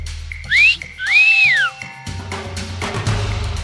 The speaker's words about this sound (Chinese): 这时候呢，听到了吹口哨的声音哦。